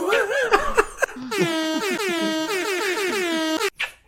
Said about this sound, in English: Air horns, yes. More air horns, uh huh.